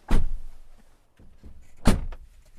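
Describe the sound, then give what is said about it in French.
Two heavy truck cab doors slam shut, nearly two seconds apart, each a loud, solid thunk with a brief rattle, followed by faint interior shuffling and no talking, as the doors are closed before starting the truck. “Et eh ben, on va pouvoir se mettre en route, on va fermer les portières, démarrer le camion mhm.”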